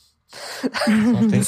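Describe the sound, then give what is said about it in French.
A single sneeze: a breathy intake builds into a sharp burst of noise, trailing off in a brief voiced sound after a moment of quiet. “À tes souhaits”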